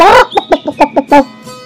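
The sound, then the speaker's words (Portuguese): Hens clucking in a quick, uneven run of about seven short, nasal clucks, fairly loud, with no one talking. “Cacarejaram as galinhas querendo saber o motivo daquela tristeza.”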